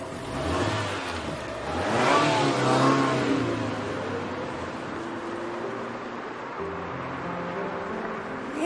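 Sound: car engine revving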